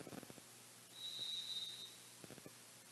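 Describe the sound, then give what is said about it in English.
A referee's whistle gives one steady, shrill blast lasting about a second before the tip-off of a game with the Lady Indians of Hallsville, sounding over a low hum of crowd noise and a few scattered thumps. “I believe one of the Veriz forgot her whistle, so she had to run back and get her whistle.”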